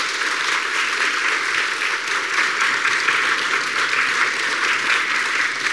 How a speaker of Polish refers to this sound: Zapraszamy, Zapraszamy i prosimy o wielkie brawa.